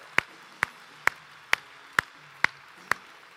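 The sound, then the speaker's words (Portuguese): Seven sharp claps land in a steady, even beat, about two per second, crisp and evenly loud over a faint background hum, with no voices; evening applause given to the Lord Jesus. “Dê mais um aplauso bem forte ao Senhor.”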